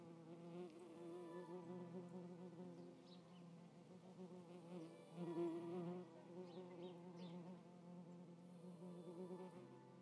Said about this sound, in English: Well, a bee has become very interested in my microphone.